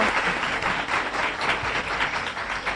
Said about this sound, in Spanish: Gracias, gracias. Un aplauso.